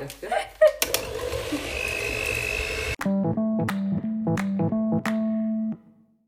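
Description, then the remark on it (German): A loud electric hand mixer whirs steadily through quark dough batter, then its motor hums in a series of short, rhythmic bursts before cutting out. “Und das verrühren wir jetzt.”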